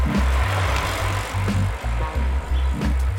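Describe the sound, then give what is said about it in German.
Steady, loud road rumble and hiss from traffic on Orcas Island in the San Juan Islands, heard while cycling around the island, with a low pulsing throb repeating about twice a second throughout; no voices. “Und außerdem gibt es deutlich mehr Verkehr als auf Lopez.”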